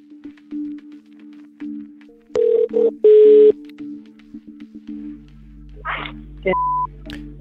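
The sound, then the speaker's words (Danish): A phone call being placed by a Radio 4 journalist to an out-of-hours doctor: a quick series of keypad dialing tones, followed by a steady electronic ringing tone over a low hum on the line, with a short beep near the end. “Vi ringer til vagtlægen for at høre, hvordan hun forholder sig til den klage og den kritik, Sabrina og Belinda har.”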